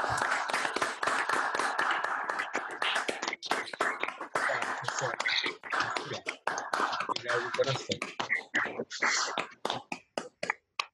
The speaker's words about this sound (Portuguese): Convidar, não sei como é que fica isso aí, mas eu, como eu gosto de música, vamos abrir o microfone e aplaudir para ver como é que fica. Todo mundo abre o microfone e aplaude. Vamos lá.